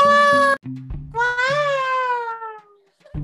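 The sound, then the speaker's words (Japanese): A cute, cat-like meow: a short high cry followed by a longer, drawn-out mewl that rises then slowly falls, clear over a low, steady background hum. “あのやつなんかちょっと可愛い猫みたいだったよ。”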